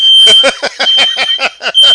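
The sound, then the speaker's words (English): A plugged-in smoke detector chirps loudly in a rapid, steady series of about nine shrill, high-pitched beeps over a constant piercing tone, with no talking. “It, it would keep chirping because it's plugged in.”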